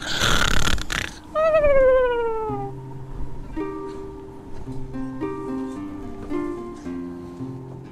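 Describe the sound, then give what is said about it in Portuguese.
A voice loudly imitates a snore with a rough, noisy snort, then slides into a drawn-out, whiny descending groan, while soft sustained tones hum steadily in the background. “Aí ele se joga de costas e começa a dormir e roncar.”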